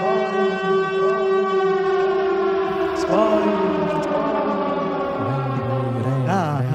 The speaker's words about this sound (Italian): Oh niente, vabbè, facciamo l'allarme della parte spoiler, maestro. Allarme? Spoiler.